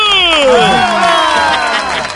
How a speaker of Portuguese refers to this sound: Vamos agora recebam com aplauso o candidato de hoje.